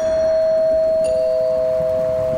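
A doorbell rings with a sustained electronic chime, one steady tone shifting to a second slightly lower tone partway through, ringing clearly over a faint background hum with no voices.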